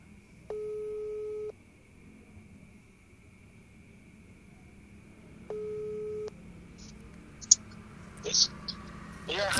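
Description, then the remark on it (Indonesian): A telephone ringback tone sounds twice as someone places a phone call, each a steady electronic buzz about a second long with a pause between, followed by a few faint clicks and handling noises at the end. “Tungguin ku telepon dulu orangnya.”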